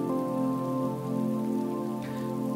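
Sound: rain falling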